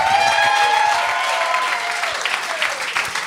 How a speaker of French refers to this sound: J'aimerais ça qu'on l'applaudisse.